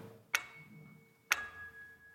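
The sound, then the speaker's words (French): A grandfather clock in a living room ticks twice, about one second apart. Each sharp tick leaves a faint metallic ring. “une montre de Tintin, une horloge grand-père.”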